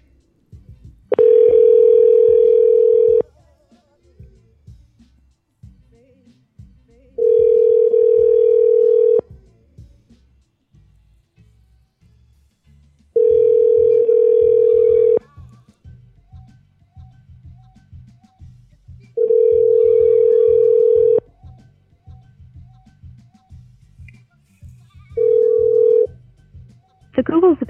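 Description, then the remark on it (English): A phone line rings out on an outgoing call, a second try to reach someone who did not pick up before: five steady, mid-pitched ringback tones, each about two seconds long with roughly four-second gaps, and a faint low murmur underneath. “Uh, no, I don't think we were able to get through to them. Let's try them again.”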